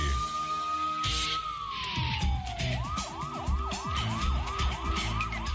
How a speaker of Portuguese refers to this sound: Essa sirenezinha aí de fundo empolga, viu, na hora de falar.